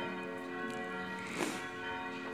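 Church bells ring continuously, a dense layered peal of overlapping tones with steady loudness and a brief swell midway, rung to mark the start of the second part of a sermon, with no voices.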